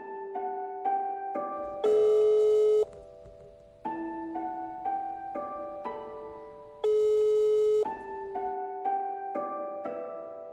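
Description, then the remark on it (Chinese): A telephone ringback plays as a bright electronic melody of stepped beeping tones while a call goes unanswered after nine in the evening, the short phrase repeating twice with no answer and no voices. “直到出了语音提示，也没有人接电话。”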